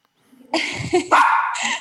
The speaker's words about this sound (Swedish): Nej, nu hörs min hund där i bakgrunden.